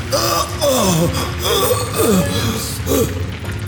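A man gasps and pants in pain, letting out several strained, groaning breaths at irregular intervals over a steady rumbling, mechanical background noise.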